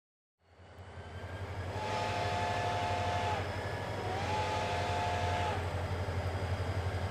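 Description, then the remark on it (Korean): A night train departs, rumbling steadily after a brief silent start, a deep low drone throughout, with two long horn blasts sounding in the middle, loud. “성이 똑같이 콘텐츠인 중위가 이끄는 17보병대의 병사 18명은 야간 열차편으로 몰래 출발한다.”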